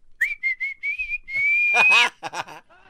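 A person whistles a series of short, clear notes, then a long sliding whistle rising in pitch, followed by a few quick chirpy whistled bursts, fairly loud with no talking.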